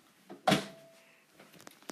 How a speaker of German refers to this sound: Tür zu.